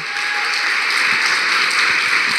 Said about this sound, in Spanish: ¿Cuántos pueden decir amén? O sea que puedes dar otra vez un fuerte aplauso al Señor.